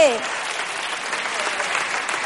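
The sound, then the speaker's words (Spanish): An audience breaks into steady applause, dense overlapping clapping that holds at an even, fairly loud level for a couple of seconds without any voices over it. “No aplaudáis groserías.”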